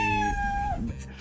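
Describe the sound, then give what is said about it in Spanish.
A single drawn-out cat meow, fairly loud, holding a steady pitch before trailing off, followed by faint background rustle. “sí, lo que pasa es que ya hay unos gatos un poco más avanzados.”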